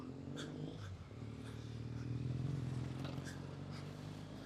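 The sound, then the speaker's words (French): Street traffic of cars rumbles steadily, a low engine drone that swells briefly as a car passes, with faint clatters on top and no one talking. “Ouh là toutes ces voitures.”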